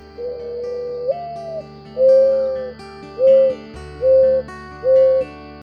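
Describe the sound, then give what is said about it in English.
A mourning dove (Zenaida macroura) coos: a soft, drawn-out rising note followed by four low, hollow hoots in a slow, even rhythm, clear against a quiet background. “It's the mourning dove, Zenaida macroura.”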